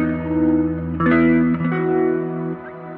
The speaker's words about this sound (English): Um, but with this this uh, high amount of high cut, it works also. Okay, um, that's all about the ionosphere reverb, and this is the the basic sound for for my verse part.